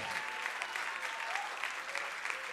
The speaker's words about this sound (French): Et si tu le crois, donne une main d'acclamation. Je veux t'entendre crier Alléluia.